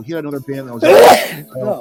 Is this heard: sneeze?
yes